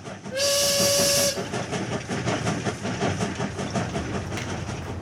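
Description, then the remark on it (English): A loud train whistle blasts for about a second, then the steady rumble and rhythmic clatter of a train rolling along the rails on a ride to Providence continues. “Look, what do you say we take a train ride to Providence and see this artist tomorrow?”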